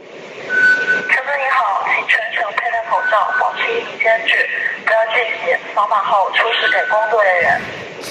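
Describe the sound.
A voice speaks steadily over a loudspeaker at a security checkpoint, thin and tinny with a slight echo, making a continuous public announcement that fills the whole stretch at a fairly loud level.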